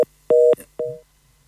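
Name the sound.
telephone line tone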